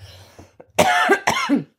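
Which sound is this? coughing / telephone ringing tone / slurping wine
coughing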